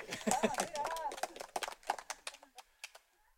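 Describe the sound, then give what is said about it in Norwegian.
An audience at the Frikirken's first church service of the spring claps irregularly while a few voices whoop and cheer at first; the applause thins out into scattered single claps before fading away. “Har vi en liten eh, klappings og jubel da, eller?”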